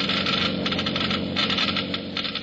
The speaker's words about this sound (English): Listen now as the Geiger counters click off the difference. First, the low wear rate of new RPM. Now, the much faster wear rate of the conventional oil.